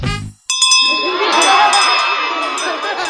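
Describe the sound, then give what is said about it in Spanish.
A school bell strikes suddenly and rings out for break time with a bright, sustained metallic tone that slowly fades, while a crowd of voices murmurs busily underneath. “nos está sonando la campana que nos avisa que ya es hora de nuestro descanso”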